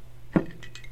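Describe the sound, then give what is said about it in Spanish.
A single bright clink of ice against a glass of vermouth during a toast, fairly loud, followed by a couple of faint lighter rattles as the cubes settle. “El tintineo de los hielos, pues nada, oye, salud, ¿eh?”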